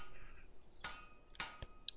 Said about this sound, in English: Do you hear that, I-Hsien? It's the sound of the hull splintering beneath the tentacles of the kraken.